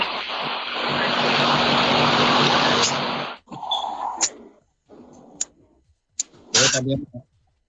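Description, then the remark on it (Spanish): A loud, steady roar of airplane engines leaking into a live broadcast transmission drones for about three seconds, then cuts off abruptly, leaving scattered short bursts of noise and faint muffled voices. “ya hemos logrado que el comando central haya eliminado los sonidos de los motores del avión que se estaban filtrando aquí en nuestra transmisión.”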